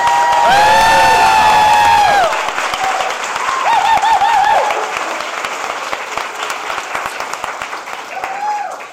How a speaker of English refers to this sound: And let's give a special round of applause for our Sterling music teacher